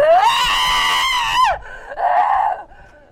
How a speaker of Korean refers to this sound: 뭐야? 사라졌어. 이렇게 비명 지르더니 뛰쳐나갔어.